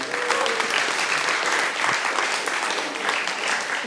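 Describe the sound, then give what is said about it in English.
A crowd claps steadily for about four seconds, a dense, even wash of many hands at a constant loudness, with no voices standing out above it. “Come on, let's give a clap to.”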